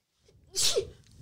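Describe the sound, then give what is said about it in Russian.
A woman sneezes once: a short intake of breath, then a sharp, hissy burst that fades quickly. No one speaks. “Первый чих в нашем подкасте, очень здорово.”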